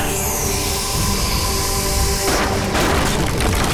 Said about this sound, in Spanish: ahora sí, la casa se vino abajo.